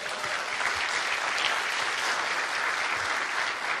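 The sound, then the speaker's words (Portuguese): A standing audience applauds Jesus during worship, a dense wash of many hands clapping at once, sustained and fairly loud throughout with no speech over it. “Pode então, dar uma salva de palmas a Jesus.”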